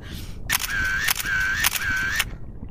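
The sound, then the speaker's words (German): A camera shutter fires in a quick burst, sharp clicks separating three short whirring stretches, with no talking over it, while someone photographs a hammerhead shark through a glass pane. “Mach ein Foto,”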